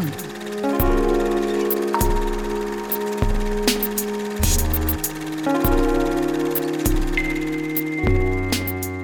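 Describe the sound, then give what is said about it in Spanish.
A short radio jingle bumper leading into the cinema section 'Ruido, cámara, acción' plays loud: punchy music driven by a steady, thumping bass beat roughly every second, with layered sustained tones and bright percussive accents on top. “Vamos a la cortinilla y regresamos.”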